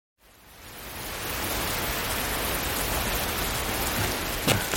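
Steady rain pours down in a dense, even hiss that fades in over the first second and then holds constant, with a few sharper drips near the end. No voices.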